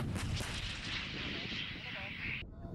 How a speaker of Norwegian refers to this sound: Videobilder som er laget av forsvarsdepartementet i Aserbajdsjan, viser soldater som mater bombekastere med bomber, skyter i luften med gevær og snakker iherdig over sambandet mens røyken stiger opp i det grå, buskete fjellandskapet rundt.